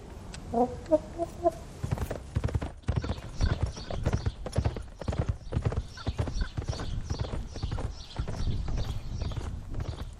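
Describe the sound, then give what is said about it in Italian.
Steady, rhythmic clip-clop of horse hooves while riding out from a ranch, continuing for the whole stretch, with a few clucking chicken calls heard near the start. “Oggi siamo andati a cavallo fuori dal ranch.”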